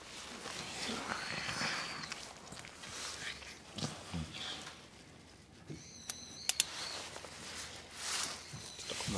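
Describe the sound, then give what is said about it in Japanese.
Quiet rustling and soft scraping of continuous suturing of skin during cow surgery, with a few crisp clicks near the middle from a scissors-like stitching instrument, and gentle handling noises throughout, no talking. “連続縫合の音をお楽しみください”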